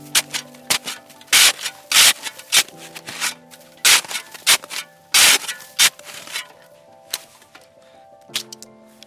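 A saw with a 25 cm blade rasps through a block of snow in a snow profile. It cuts a square at a right angle to the slope, down to a lower layer. The scraping strokes come in uneven bursts, some long and some short, loud, with brief pauses between them and no talking.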